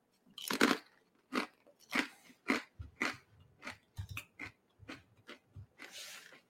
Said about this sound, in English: Excuse me for eating pretzel chips.